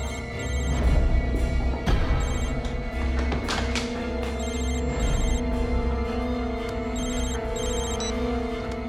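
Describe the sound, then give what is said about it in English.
Stefan's phone rings as Elena calls him, a repeating electronic tone in steady rhythmic bursts continuing throughout over a dense, droning background, with no one speaking. “She can like hear the flicker she calls Stefan.”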